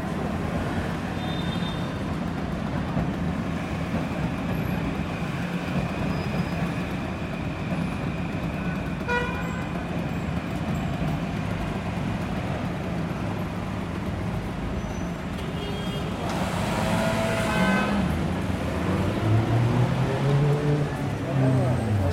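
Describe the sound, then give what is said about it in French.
Dense street ambience on the busy boulevard de la Chapelle in Paris during the first days of Ramadan: a steady roar of traffic and engines with a crowd of voices murmuring throughout, a brief tonal horn-like blip, and a louder vehicle passing near the end. “C'est à peu près ça l'ambiance des premiers jours de Ramadan ici à, boulevard de la Chapelle.”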